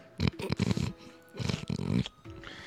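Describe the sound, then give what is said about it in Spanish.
A person's voice imitates a motorbike engine starting: two rough, growling, loud revving bursts separated by a brief pause, with a fainter rumble at the end. “Y él se cree que es una Biwi arrancando, ¿sabes?”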